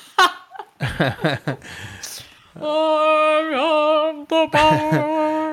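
Short bursts of laughter-like vocal sounds give way to loud, sustained orchestral film-score chords from the He-Man film, at the moment he picks up the sword and says 'I have the power', held and swelling, with a brief break before the music returns.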